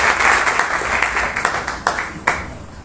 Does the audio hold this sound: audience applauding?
yes